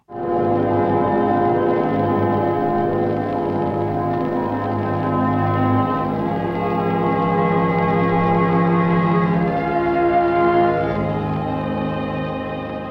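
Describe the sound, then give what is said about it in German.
Dense, sustained string quartet tones, electronically altered, blur together into a dull, muffled wash, warped and murky as though heard through water, playing continuously at steady loudness with no voices. “Dumpf, entstellt, vergraben, wie, naja, unter Wasser.”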